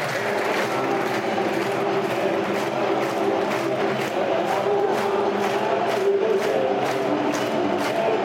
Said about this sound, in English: decent sized crowd in fairness. but one is filling up. It's not quite um, the 18,500 that we had last week against Sunderland, but um, it's a decent sized crowd looking around the den, dear listener. It's good to see it.